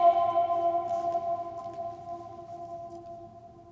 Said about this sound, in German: Das kann man hier schön ausprobieren. Wir haben mal gemessen 16, 17 Sekunden Nachhall etwa. Okay. Das ist also Kathedralenformat, sage ich mal. Kann ich mal kurz laut sein und das ausprobieren? Na, gerne. Echo.